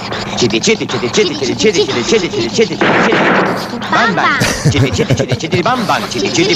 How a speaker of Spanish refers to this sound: ¿Qué ruido tan raro hace? Es que habla. Todos los motores hablan. ¿Qué dice?